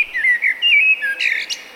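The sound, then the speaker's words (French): A Eurasian blackbird sings a short, clear run of fluting, warbled whistles, fairly loud, ending in a brief higher squeaky flourish, with no voices. “Et résultat, le merle noir.”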